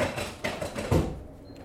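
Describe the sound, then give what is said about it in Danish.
A chair scrapes and shuffles across the floor, with a few rough bursts and a low thump near the middle before the noise fades out. “Der kom lige en stol.”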